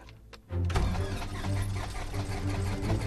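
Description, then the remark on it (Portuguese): A light aircraft engine, call sign Charlie Sierra Delta Papa Golf, cranks after fuel is injected into the system, with the brakes held, and catches about half a second in, quickly settling into a loud, steady, throbbing idle that continues to the end. “Tenho aqui este indicador, corto o combustível, desligo e agora com os pés nos travões vou aguardar e vamos aqui fazer o start.”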